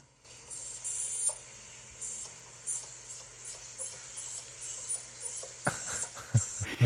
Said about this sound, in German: nee, ist keine Maus, ist mein Hund, der so quietscht und fiebt.